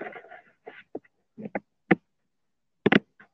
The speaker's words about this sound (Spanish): si se preguntan si hay un perro ladrando es porque mi perro es, es un perro muy estérico.